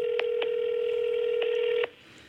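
A steady electronic tone from a cellphone call being dialed hums through the line, punctuated by a few sharp clicks, then abruptly cuts off near the end, leaving faint background hiss. No one speaks.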